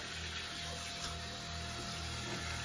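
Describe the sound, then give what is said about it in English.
Tap water runs in a steady, continuous stream, as if filling a drinking glass, with a soft even rush that holds constant throughout and no voices present. “So I'm just gonna grab a glass, just a regular glass, fill it up with water.”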